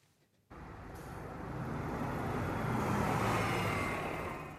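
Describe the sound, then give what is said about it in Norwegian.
City bus number 11 rumbles along a road at Stavanger University Hospital in Stavanger, Rogaland, after a brief quiet start, its broad engine and road noise swelling steadily and staying loud, with traffic noise around it and no talking. “Buss nummer 11 har allerede passert en rekke rundkjøringer og en endeløs rekke av småveier hvor bussen har vikeplikt fra høyre.”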